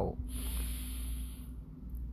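A slow, steady breath drawn in, a soft airy hiss lasting over a second before fading, with a low hum underneath and no talking; a person inhaling during a lung breathing exercise, hands on the rib cage as the ribs push outward.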